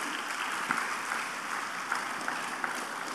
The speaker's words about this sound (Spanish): Den un aplauso al Señor, por favor, en esta noche.